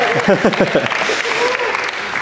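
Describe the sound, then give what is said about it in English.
An audience breaks into steady, fairly loud clapping that continues as a dense patter throughout, with a few voices calling out early on. “Come on, that's, that's a can clap, right?”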